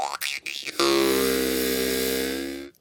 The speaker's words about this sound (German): Ähm, nee, das ist die Maultrommel. Der kann ich ähm, schöne Geräusche